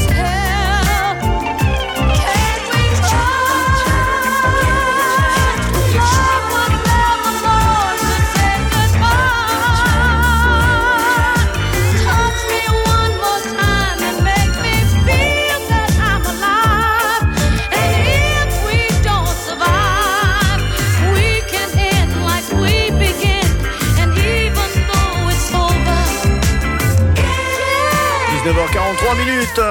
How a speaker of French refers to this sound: Et voici le son de la soul music